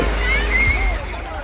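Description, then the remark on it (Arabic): Sea waves wash steadily onto a beach, a continuous surf roar with a low rumble, while faint voices drift in the background as children enjoy the warm sea water before sunset during the summer holiday. “ومع صعوبة الذهاب خلال إجازة الصيف لكثير من الأماكن الترفيهية والمسابح ما كان أمام العيلة إلا أنه تترك الصغار يستمتعوا قدر الإمكان بمياه البحر الدافئة قبل المغيب”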